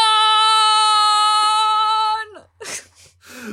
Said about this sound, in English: oh boy, you're editing the episode with that yell in it.